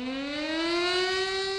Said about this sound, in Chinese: 上午的十点零一分，整个南京城在凄厉的防空警报声中静止了一分钟。